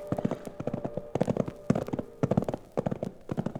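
Hooves of two saddled livery horses being ridden close by the railroad clip-clop in a steady, uneven rhythm of quick hard knocks, several animals stepping at once, with a faint tonal hum running underneath.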